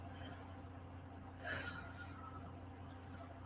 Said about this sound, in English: I'm a, I'm gonna do a breathing exercise, which I wanted to incorporate into this podcast anyway. But what better time than now because I have the hiccups.